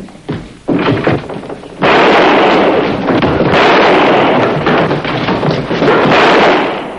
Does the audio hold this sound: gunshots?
yes